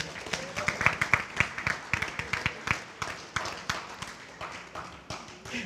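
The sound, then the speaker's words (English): An audience applauds, a dense, steady patter of many hands clapping that holds for several seconds at a fairly strong level, with faint voices mixed into the crowd noise. “you know, applauding that is crazy, right?”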